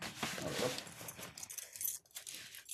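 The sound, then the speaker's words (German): Crinkling and tearing of plastic packaging, with light metallic jangles as the package is pried open with a key in quick, irregular scrapes and rips. “nimmt gerade einen Schlüssel und äh, öffnet die Packung.”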